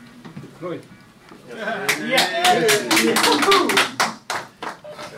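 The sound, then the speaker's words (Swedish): Quiet murmuring voices in a mission control room give way to a burst of applause, many sharp claps rising quickly and continuing over excited overlapping voices and cheers before thinning out near the end. “Applåder, helt enkelt.”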